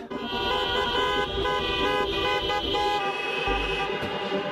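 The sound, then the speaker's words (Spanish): Many car horns honk together in a sustained, overlapping chorus of steady tones, loud and continuous, with traffic rumble underneath and no talking, at a car demonstration against an education law, backed by state-subsidised private schools. “De los gritos del Congreso a las manifestaciones en coche, aupadas por las escuelas concertadas, que encuentran en esta ley un ataque a la libertad.”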